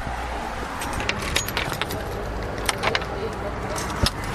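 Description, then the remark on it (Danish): Keys jangle at the front door of a shared house as someone moving in arrives, in a string of bright metallic clinks and rattles, scattered irregularly over a few seconds, with a sharper clatter near the end above a low, steady background rumble. “Og du har simpelthen fået en nøgle?”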